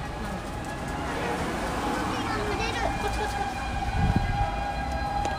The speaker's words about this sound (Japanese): すごい救急車物々しいですね物々しい